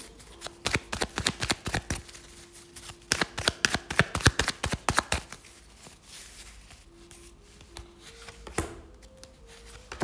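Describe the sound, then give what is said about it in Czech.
Playing cards being shuffled for a partner card reading, a rapid run of crisp riffling clicks in bursts, pausing briefly, then resuming with softer flicks and a low steady hum underneath. “A já už se dívám na vaše fotky, míchám karty a my se na to pořádně podíváme.”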